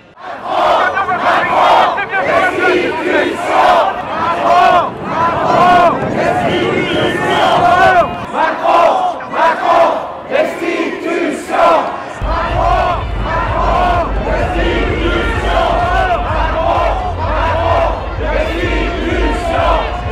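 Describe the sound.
A loud protest crowd chants and shouts together at a street demonstration in Paris on 17 September 2022, many voices rising and falling in rhythmic waves, with a steady low rumble joining in partway through.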